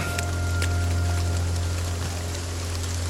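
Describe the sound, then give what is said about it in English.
A steady, dense hiss of heavy storm rain, with scattered sharper patters of drops over a low, constant rumble. It runs unbroken throughout, and no one speaks. “A storm is afoot.”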